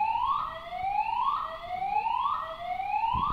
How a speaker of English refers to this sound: Oh, the alarms are just going off. Mm. I think that's your alarm to say time's up.